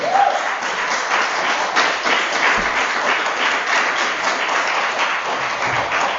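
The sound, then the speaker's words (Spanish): Loud, sustained applause from a church audience clapping for the Lord during a sermon, a dense wash of many hands clapping steadily for several seconds with no clear individual claps standing out. “Denle un aplauso al Señor. lo fuerte.”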